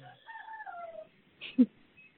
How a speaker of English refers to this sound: I love my rooster. like, I Ron, go. yeah, Ron the rooster has come right up beside me and is cockadoodle doing as he does.